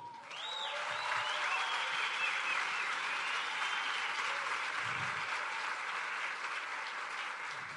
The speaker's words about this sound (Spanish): Y era una aplaudidera como la de hoy. Vamos a aplaudir a los nuevos.